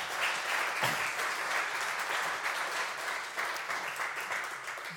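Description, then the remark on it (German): A crowd applauds steadily for the whole stretch, a dense, even patter of many hands clapping at moderate loudness with no voices standing out. “Das ist euer Applaus.”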